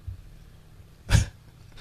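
A dog gives one short, sharp vocal burst, a single huff or bark that cuts through otherwise quiet surroundings with a faint low hum.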